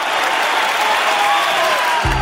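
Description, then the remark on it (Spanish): Steady, loud applause from a large crowd at a daughter's graduation ceremony fills the whole stretch, dense and continuous, with a low tone cutting in right at the end. “Así suena la graduación de tu hija, después de todo tu esfuerzo, por superar tus problemas con el juego.”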